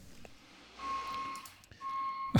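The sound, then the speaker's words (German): A garbage truck's reversing alarm sounds from outside shortly before two o'clock, on its second collection round: two long, steady electronic beeps with a short gap between them, moderately loud over low background rumble. “Es piept im Hintergrund.”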